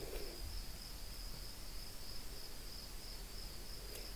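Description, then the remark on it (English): A steady, high-pitched chorus of insects chirps without pause throughout, soft against a quiet outdoor background, with no one speaking. “So we play with the practices of receiving sounds, which here thankfully have been mostly creature sounds insects, frogs, children.”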